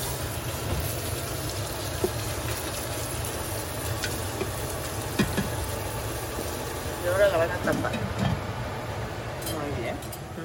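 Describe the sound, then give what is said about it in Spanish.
Beef and onion sizzle steadily in a hot pan as they are stirred together, a continuous crackling hiss with occasional scraping and stirring, while faint voices murmur in the background. “Parece que ya está la cebolla porque ya están poniendo la carne. Esta es la de res, carne de res, ya la están moviendo ahí con la cebolla.”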